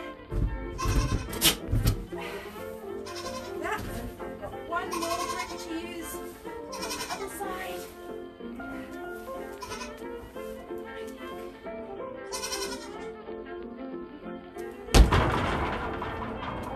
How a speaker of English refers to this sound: Oh, did you hear that? That was the billy goat. He just rammed his his horns into the side wall here. He was trying to let me know he's not impressed.